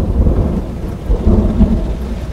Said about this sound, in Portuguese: O clarão deixa os olhos de Michael extremamente ofuscados, e o som do trovão faz seu coração saltar pela garganta.